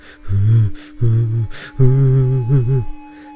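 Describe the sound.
A voice imitates two people sobbing together: a few wavering, moaning cries broken up by sharp, gasping inhales, fairly loud and with no other talk.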